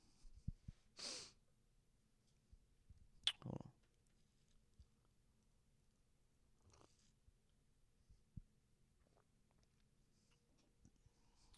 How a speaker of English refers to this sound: Hold on, we get one more sip of this f- hot tea with l- with lemon and honey in it.